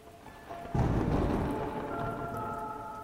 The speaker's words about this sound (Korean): 저는 몸이 찌뿌둥해서 기지개를 한번 켜고 잠시 비구경에 빠져봅니다. 번개가 운동장을 환하게 밝히면 콰강 하고 뇌성이 떨어지는 장관이 나름대로 운치 있어 보이더군요.